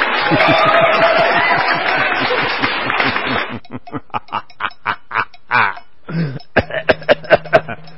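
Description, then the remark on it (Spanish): A loud fit of coughing and throat clearing after drinking water: a dense, noisy stretch at first, then a series of short, sharp coughs and raspy hacks spaced unevenly as it settles. “Disculpenme, Es que fui a tomar agua y ahí me medio descontrolé.”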